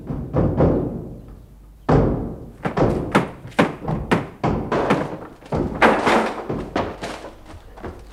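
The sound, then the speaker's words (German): Repeated heavy thuds and bangs as people force a locked apartment door together, irregular blows, with a rattling crash as it gives way, then more knocking and shoving noises. “Äh, die Tür ist verschlossen. Ja, Kunststück. Los, mit vereinten Kräften.”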